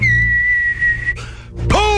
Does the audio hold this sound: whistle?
yes